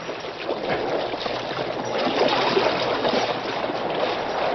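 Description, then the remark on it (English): The paddle wheels of a heavily loaded steamboat, its engines reversed, churn and whip the water into white foam in a steady, loud, continuous rush of splashing, with a low engine rumble underneath and no voices. “The mighty paddle wheels whipped the water into white foam.”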